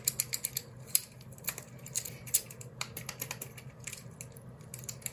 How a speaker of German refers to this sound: Also das habe ich einfach so random gekauft. Das ist so ein ASMR-Würfel.